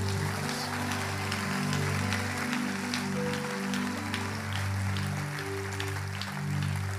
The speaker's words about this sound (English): If you believe it, give the Lord a mighty hand clap.